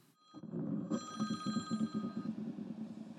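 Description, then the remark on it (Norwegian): A telephone rings with a steady trilling bell, fairly loud, its bright repeated tones continuing without pause over a low hum for a few seconds. “Ja, eh, folk i frivilligheten de, de er ofte travle og driftige typer, så det er ikke alltid de har tid til å ta telefonen, men heldigvis så ringer de raskt opp igjen.”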